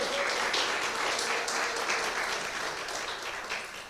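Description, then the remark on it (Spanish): An audience claps together for the Lord Jesus in a sustained, dense burst of applause, steady and fairly loud throughout, tapering slightly toward the end, with no talking over it. “Denle un aplauso al Señor Jesús, amén.”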